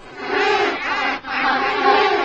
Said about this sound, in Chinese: 我们是动物科学家，我们来到遍地是白雪的南极洲研究企鹅。如果你看到企鹅，说企鹅。你看到企鹅了吗？Where？Yeah, there they are。你听企鹅的叫声。